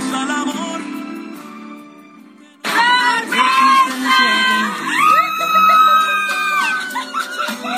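A woman lets out loud, high-pitched shrieks of joy, excited squeals rising and falling for several seconds, close by and overlapping with other voices.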